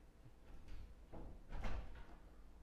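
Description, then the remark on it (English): The door to an office swings shut with a soft bump and a heavier thud a moment later, muffled. “Just make sure the door to my office is closed.”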